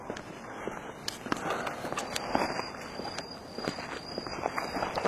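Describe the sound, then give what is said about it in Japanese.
Footsteps of someone walking at an unhurried pace instead of taking the bus, a steady run of soft scuffing steps over a continuous low background hiss, with no talking. “バス乗らずにちんたら歩くともう1時間か2時間ぐらいかまあまあやな”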